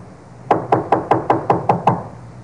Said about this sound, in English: Let him knock again.